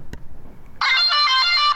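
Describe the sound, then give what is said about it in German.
A smart white cane's horn signal during walking navigation on Lindenwiesenweg, sounding instead of a spoken next instruction: after a soft click and a short quiet stretch, a loud, steady, buzzy electronic tone sounds for about one second, rich in harmonics. “Nee, da kommt nur die Hupe.”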